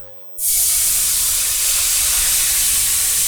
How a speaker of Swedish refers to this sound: Och vad händer egentligen nu där nere i pannan då? Nu har vi, har vi deglacerat pannan med vitt vin och eh, fett från guancialen.